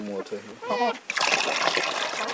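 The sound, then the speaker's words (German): Water pours out in a steady splashing rush lasting over a second as a woman brings water to chickens in a poultry enclosure beside a small kitchen building, following a moment of brief voice-like sounds at the start. “Njoroges Frau bringt den Tieren Wasser und Futter.”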